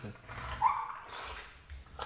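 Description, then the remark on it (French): A dog, made to bark by its owner, gives a short, high-pitched bark or yelp, with a faint voice murmuring in the background. “je l'ai fait aboyer comme ça.”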